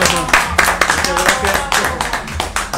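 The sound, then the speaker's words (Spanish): A crowd applauds steadily, with dense clapping that stays loud throughout, mixed with murmuring voices and some cheering underneath. “Este, un aplauso gracias.”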